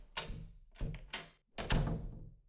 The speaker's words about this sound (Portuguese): Retornando para a locomotiva, e em meio aos tropeços com aquelas pessoas que voltavam no sentido contrário ao dele, todas procurando sair, foi bem nesse exato momento que Levi pisa os degraus para subir no vagão central e abre a porta.